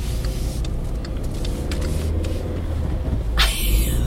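A car approaches from behind amid a constant low engine rumble, its broad whooshing noise swelling noticeably louder near the end as it comes up. A few faint clicks sit in the background.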